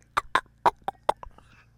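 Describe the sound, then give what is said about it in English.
A voice imitates a microphone being jostled, making five or six quick clicking and thumping mouth noises in an uneven rhythm over a faint low hum, then trailing off. “It was the sound that I made with my own mouth of imitating of what it kind of sounds like when the mic shifts around.”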